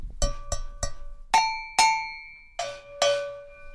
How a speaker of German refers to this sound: Das sind Kuhglocken oder Fachbegriff ist Cowbell. Das brauchen wir auch als Zusatz am Schlagzeug, als Effekt.